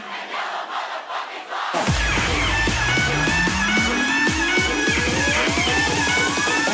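A crowd at the EDC festival shouts back a call-and-response chant together for a moment, then a loud electronic track crashes in with heavy pounding bass beats and a steadily rising synth sweep.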